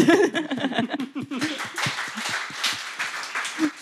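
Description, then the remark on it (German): Voiced laughter gives way to a steady burst of applause, many hands clapping in a dense, crackling patter that holds at a moderate level for a few seconds. “Applaus kann es auch, das hört man, ne?”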